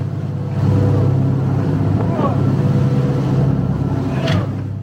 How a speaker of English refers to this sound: But we gained rare access to a Ukrainian coastal patrol yeah setting out in high seas to challenge what they say is Russia's illegal naval cordon, something Moscow rejects.